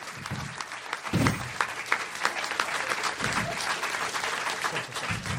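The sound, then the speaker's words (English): An audience claps in a steady round of applause, dense overlapping hand claps filling the whole stretch at an even, moderately loud level with faint crowd murmur underneath. “ladies and gentlemen, give him a nice round of applause.”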